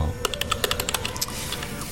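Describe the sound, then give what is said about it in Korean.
Rapid, uneven clicking of keys on a computer keyboard, a dozen or so taps in quick succession over a low background hum, with no talking, as someone types in the smoking room of a coffee shop. “담배 끊었다면서 꼭 이렇게 흡연실에서 키보드를 두드리게 해야 직성이 풀리겠냐?”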